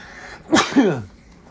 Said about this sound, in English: one little sneeze.